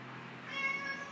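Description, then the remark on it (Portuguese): A pet cat gives a single short, high-pitched meow, fairly quiet, heard on its own over faint background noise with no one talking. “Meu gato miou.”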